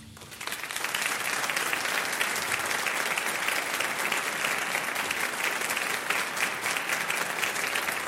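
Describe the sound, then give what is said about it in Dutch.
A concert audience applauds steadily after a performance of Britten's Simple Symphony, many hands clapping in a dense, continuous wash that swells in within the first second and holds at an even, loud level throughout. “U heeft een eerbiedige stilte voorgezeten hè, voor dit applaus.”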